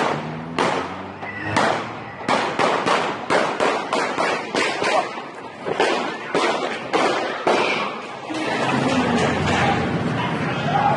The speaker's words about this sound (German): Diesmal feuert er mindestens 16 Schüsse ab. Ganz offen steht er da, ohne Tarnung, ohne Verstecken, steht einfach da und schießt. Man sieht ihn, man hört ihn, auch vorbeifahrende Autofahrer bekommen mit, was da passiert.